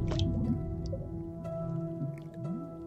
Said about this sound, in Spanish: En la quietud sepulcral del baño, imagina escuchar el imperceptible crepitar de los cuerpos fermentando y el ácido hervor de la viscosa sustancia que inunda la tina.